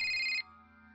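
mobile phone ringing

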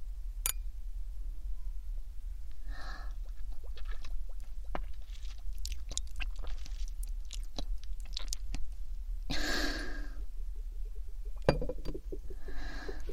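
glasses clinking

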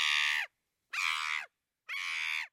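shrill scream

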